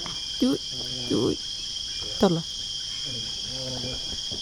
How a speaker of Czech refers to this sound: To je cikáda. Ano, ano, slyším, no.